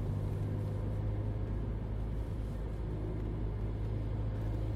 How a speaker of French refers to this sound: Le diesel diffusait comme un parfum de road trip. Le soleil de 14 heures caressait la tôle de la tire qui glissait sur les collines.